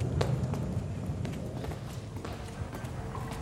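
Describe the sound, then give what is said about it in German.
Quick, steady running footsteps of people running through corridors patter along at a brisk rhythm, with a dense low rumble beneath them and no voices. “Ihr rennt durch Gänge.”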